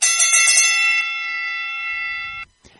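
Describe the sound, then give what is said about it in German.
A bright bell, rung to announce a baseball trade (David Hernandez moving from the Angels to the Arizona Diamondbacks), rings out loudly, struck with a quick clatter at first and then left to sustain in a steady metallic tone for about two seconds before cutting off abruptly. “Und wo wir gerade von den Diamondbacks eben gesprochen haben, sie haben einen Trade gemacht und jetzt kann ich mal wieder die Glocke”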